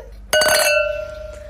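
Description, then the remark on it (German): A single bright clink of glasses touching in a toast, a sharp strike followed by a clear ringing tone that fades slowly over about a second, with no talking. “ich würde sagen, auf diese, wir erheben unser Glas ja. und sagen Stößchen.”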